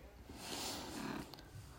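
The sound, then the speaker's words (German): A cat purrs right up against the microphone, a low, grainy rumble that swells steadily and continues for a couple of seconds with a soft breathy rasp on top. “Äh, Katze ist auch gerade angekommen.”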